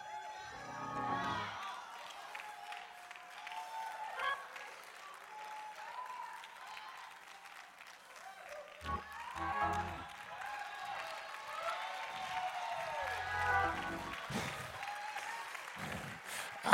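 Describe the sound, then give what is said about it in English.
A large crowd claps and cheers continuously in praise of God, with scattered whoops and shouts rising over steady applause that swells and fades in waves throughout. “Somebody give him praise right now.”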